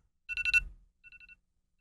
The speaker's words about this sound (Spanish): A ver, muéstrame su eh, ponga y ahí, reproduzca su alarma. Ya, ah, que la reproduzca.